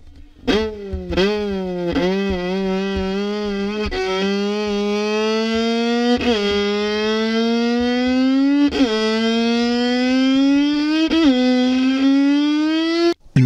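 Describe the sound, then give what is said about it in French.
A violin imitates a police siren, bowing loud sustained notes that slide upward and restart in a steady cycle, about five wails in a row with no voices. “sirène de police.”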